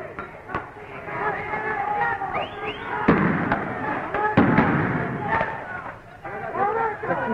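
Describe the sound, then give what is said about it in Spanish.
Sharp, booming shots of police tear gas canister launchers go off several times at irregular intervals, loud, over the steady din of a shouting, chattering crowd of students throwing bottles and Molotov cocktails, at 7:50 pm. “Los estudiantes lanzan botellas y bombas molotov y la policía contesta con disparos de bombas de gases lacrimógenos.”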